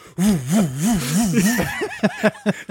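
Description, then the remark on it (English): A voice imitates Alistair Lynch's fists whooshing through the air, a 'windmill whistle': a wavering, siren-like hum that rises and falls in quick regular swoops, then breaks into a few short choppy bursts, fairly loud. “The last thing he hears before he goes, before he's hit once more, is another whistle, and this is the sound of Alistair Lynch's fists moving through air.”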